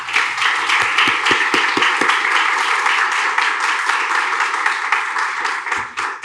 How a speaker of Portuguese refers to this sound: Eu quero chamar aqui para sentar com a gente e conversar o Armínio Fraga. Por favor, Armínio Fragas, uma salva de palmas para o Armínio Fraga.